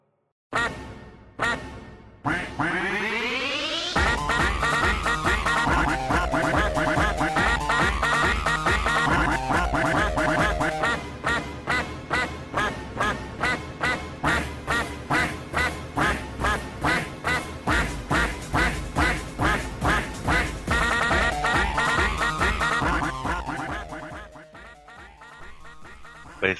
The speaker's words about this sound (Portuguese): música normal do podcast ou o pato? Vai ser o, vai ser o Pato Duck Spartan Remix All the Time.